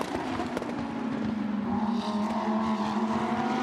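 Lamborghini race car engines drone steadily and loudly at high revs as the cars head up a hill into turn six during a race, a sustained mechanical roar that holds a strong pitch throughout, with no voices present.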